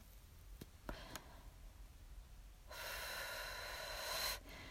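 A few faint clicks, then a long, deep breath drawn in steadily for nearly two seconds, like someone inhaling cigarette smoke deep into the lungs.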